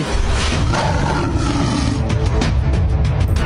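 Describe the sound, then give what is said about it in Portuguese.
A lion roars loudly for several seconds, a deep, rough, sustained growl filling the whole stretch with no one speaking over it, in a video President Bolsonaro posted on his social media comparing himself to a lion attacked by hyenas. “O presidente postou nas suas redes sociais um vídeo se comparando a um leão sendo atacado por hienas que representavam partidos políticos, veículos da mídia e órgãos do governo, como o STF.”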